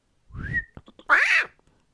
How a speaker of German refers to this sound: Und das war wieder meine Katze, ich bin auf den Schwanz getreten.